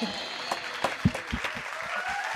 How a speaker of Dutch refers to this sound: Applaus allemaal!